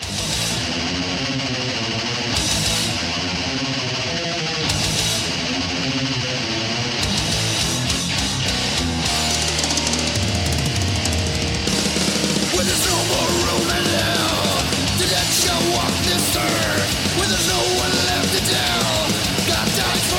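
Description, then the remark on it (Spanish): Loud, fast thrash metal with dense distorted guitars and pounding drums, a raspy shouted voice riding over the wall of sound for about twenty seconds. “como se oye casi trash, ¿verdad?”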